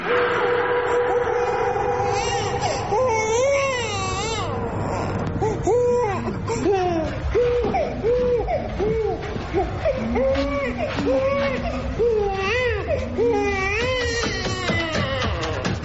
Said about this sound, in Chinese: 隔壁又传来了婴儿的哭声。